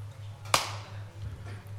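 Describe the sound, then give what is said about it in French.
A single sharp hand clap, demonstrated as basic body percussion, with a bright, snappy attack and a short decaying tail, standing alone over a steady low hum. “Et sinon, simplement, le clap des mains,”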